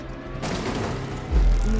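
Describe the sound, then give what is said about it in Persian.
A burst of gunfire erupts outside a warehouse after a car has rammed into the warehouse door, amid a dense, noisy rumble, followed by a heavy low boom that swells near the end. It's loud and chaotic, with no clear speech. “نه نه نه زلزله نبود انگار یه ماشین کوبیده بود تو در انبار بعدش هم سر صدای تیراندازی سر صدا رو میشنوی بیرون چه خبره”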